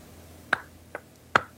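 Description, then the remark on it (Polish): Three sharp, separate hand claps at an uneven, slow pace, crisp and fairly loud against a quiet background, with no voices. “Na te oklaski zasłużyłem.”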